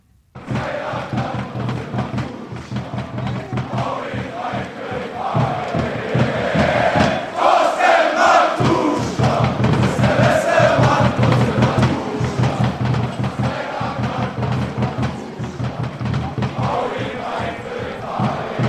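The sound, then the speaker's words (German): A large crowd of football fans chants a song together in unison, loud and sustained, with rhythmic swells and a dense roar of many voices filling the whole stretch. “Du hörst schon den absoluten Ohrwurm, das Thorsten Matuschka-Lied.”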